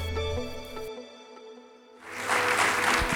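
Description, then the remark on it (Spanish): Sustained musical tones fade out, then a dense, noisy wash of audience applause swells in and continues loudly through the final second or so. “Yo creo que ese aplauso puede ser mejor.”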